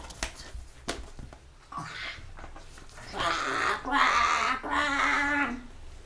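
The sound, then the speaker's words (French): A voice imitates a baby crow cawing louder than ever, letting out three loud, harsh caws in quick succession after a few quiet taps and rustles at the start. “Euh, peut-être pourrais-tu chanter euh, un petit peu moins fort Quoi fit bébé Corbeau, qui croissa plus fort que jamais.”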